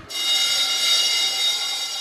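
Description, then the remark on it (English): An electric school bell at South Point School rings continuously with a loud, harsh, metallic buzz, sustained at a steady high pitch for about two seconds, with no voices. “The bell has gone here at South Point School, one of the largest in the world, and parents are waiting to pick up their kids.”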